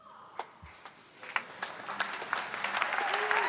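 Audience applause starts with a few scattered claps, then swells into dense, steady clapping that grows louder over a few seconds, with faint voices and a brief whistle-like tone near the end.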